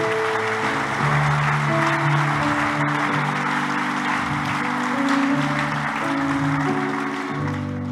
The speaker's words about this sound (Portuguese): Então vamos aplaudir, porque não fui o primeiro.